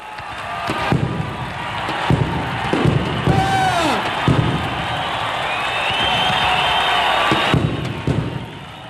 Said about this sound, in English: All of a sudden, there's like stuff shooting up in the air. Crowd goes out of their minds.